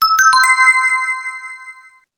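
A quiz participant's smartphone chirps an electronic activation tone during a quiz question: a few quick bright notes that settle into a sustained ringing chime, fading gradually over about two seconds with no voices.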